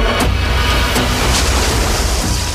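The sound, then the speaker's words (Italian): A loud, continuous roar of a storm at sea whipped up around Truman's boat, with waves crashing and churning in a dense wash of noise, deep rumble underneath and brief sharper splashes breaking through. No voices. “Ecco, e tempesta fu.”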